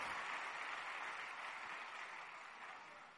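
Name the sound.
audience applause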